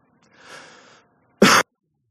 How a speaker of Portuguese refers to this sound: Me perdoem a tosse.